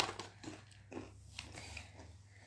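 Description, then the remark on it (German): A bar of hard chocolate being snapped apart in front of a microphone: several short, dry cracks at irregular intervals over a low steady hum, with no voices. “Ich zerbreche das vom Mikro.”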